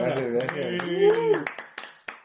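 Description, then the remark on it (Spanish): A voice talks briefly, then a handful of scattered hand claps ring out, sharp and uneven, fading into sparse applause rather than a full round. “Pues un aplauso,”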